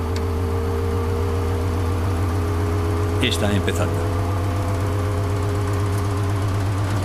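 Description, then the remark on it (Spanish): A rocket engine, based on the V2 design, roars in a steady, heavy low rumble at Mach 9.3 as the capsule vibrates violently at 150 decibels and rising, its wavering tones suggesting a rattling, shaking cabin. The sound stays loud and unbroken throughout, with a voice speaking briefly over it. “Match 9,3, vibración de la cápsula 150 decibelios y aumentando. Haciendo vibrar la cápsula violentamente.”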